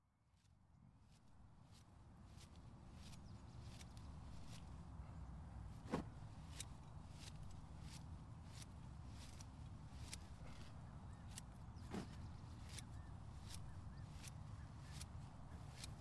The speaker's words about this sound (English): This is the sound of me harvesting salad greens at around 5:30 on a Tuesday morning in late June. Baby greens have always represented the largest source of revenues in my mixed veggie operation in BC's Okanagan Valley.